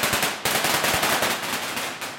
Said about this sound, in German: Eine Gruppe Soldaten stürmt in einen Wohnblock. An der Haustür haben die Männer eine Sprengladung angebracht. Nach der Explosion feuert der erste ins dunkle Treppenhaus.